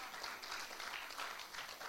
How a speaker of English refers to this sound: Can you please clap your hands to our mothers?